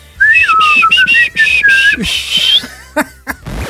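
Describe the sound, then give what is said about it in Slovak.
A person whistles a run of short, high, squeaky chirps in quick succession, imitating a hedgehog's squeak, fairly loud, followed by a few brief clicks and breathy sounds. “Až na to pískanie, lebo neviem si predstaviť, že by niekto pri tom robil”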